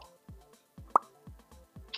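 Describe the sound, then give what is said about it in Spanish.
A voice imitates the slow shot of video game gunfire with a steady series of soft, low popping thumps, about two per second, plus one sharper click in the middle. No talking, just the mouth-made shots. “Por eso es el disparo lento.”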